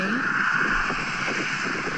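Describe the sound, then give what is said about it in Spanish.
A car drives past in a video playing on a phone's small speaker, a steady wash of engine and road noise with a thin whine on top and muffled voices underneath. “Ok, justo cuando pasa el ruido del coche sale es, cuando sale...”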